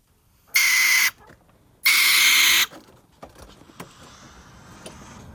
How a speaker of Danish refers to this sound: Okay, det er den der lyd, man, hvis man bor i lejlighed, så pludselig hører man den indenfra ved siden af, så tænker man, hvad fanden laver de derinde? Og så er det virkelig bare sådan en lille håndbordmaskine, hvor de er ved at,